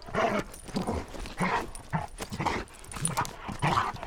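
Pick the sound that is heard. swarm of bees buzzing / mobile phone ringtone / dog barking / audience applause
dog barking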